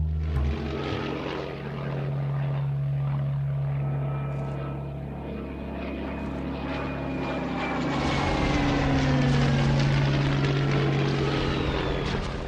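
Propeller bomber aircraft drone loudly overhead while bombing a civilian target, Guernica, during the Spanish Civil War, a steady multi-engine roar with shifting tones and pitch changes as they pass, building slightly louder toward the end.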